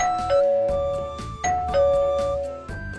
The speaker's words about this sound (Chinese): 哼哼猪捧着大蛋糕来到了玄教授家门口，小泼猴按响了门铃